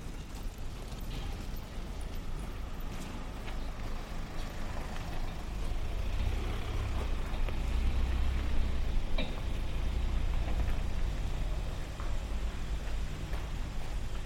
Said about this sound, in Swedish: Nu är jag omgiven av bilar. Jag går tillbaka in här på, på Svartmannagatan vänta lite så får bilen åka förbi.